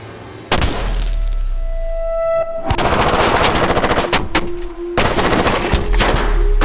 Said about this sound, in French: Un déluge de feu s'abat sur la BMW, clouant à son siège l'ennemi public numéro un. Les flics n'ont pris aucun risque.